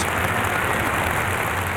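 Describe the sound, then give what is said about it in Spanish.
A brief, dense burst of clapping from a crowd, steady and fairly loud throughout with no voices. “Aplausitos y aplausitas.”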